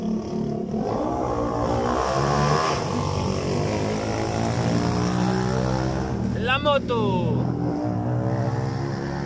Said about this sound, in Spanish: está pasando una moto, así que va a escuchar.